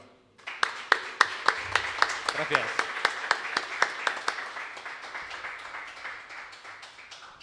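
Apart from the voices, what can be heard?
audience applause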